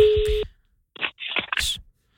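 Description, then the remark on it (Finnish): A steady electronic telephone ringing tone sounds for about half a second as a call is placed to a helpline, then cuts off; after a brief pause, a voice comes on the line as the call is answered. “Joo, kokeillaan soittaa.”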